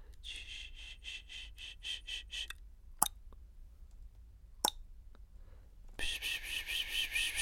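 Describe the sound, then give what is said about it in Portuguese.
A voice makes a quick run of rhythmic whispered 'pss-pss' sounds, as if calling a cat, imitating people who make relaxing sounds on YouTube. Two sharp clicks follow, then a longer breathy hiss. “Eu estou a chamar um gato.”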